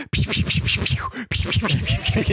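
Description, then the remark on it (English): A voice imitates a flurry of rapid punches from many virtual fighters all punching at once, with fast, breathy percussive bursts, about two seconds of loud thudding broken by one brief pause. “Because they're all punching them at once.”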